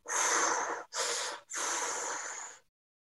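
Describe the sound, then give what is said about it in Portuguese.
A voice imitates the non-invasive ventilation machines heard in a hospital ward at midnight, with patients breathing through them: three loud, hissing rushes of air, each with a thin whistling edge, the last one longest, then silence. “É isto que se ouve durante a noite e todas as pessoas, parecem um, um filme, uma nave espacial, porque todas as pessoas, ou grande parte das pessoas, estão então a respirar através deste mecanismo de ventilação não invasiva.”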